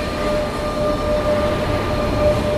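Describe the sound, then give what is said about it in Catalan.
A steady, loud train rumble at a railway station, with a constant low roar and faint high metallic tones. No one speaks. “És una estació de trens.”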